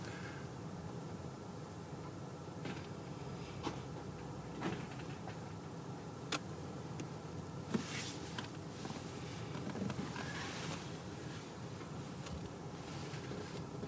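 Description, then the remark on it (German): A door is opened, with a few scattered clicks and a brief rattle standing out above a steady hiss of background noise; nobody speaks. “Vorsicht mit der Türe. Ja, klar. ja, genau, nicht so weit aufmachen.”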